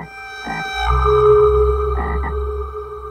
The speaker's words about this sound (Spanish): Una noche, cuando regresaba a la casa, escuché un horrible ruido detrás de mí. Cuando volteé, me encontré de frente con el más grande y horrible sapo que se puedan imaginar.